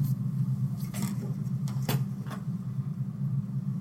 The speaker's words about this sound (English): There's a there is a delivery that's supposed to happen. Ah. That that sounded kind of oh. like a delivery truck.